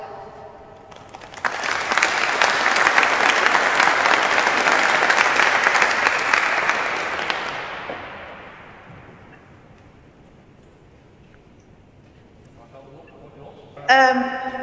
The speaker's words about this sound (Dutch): Graag een warm applaus.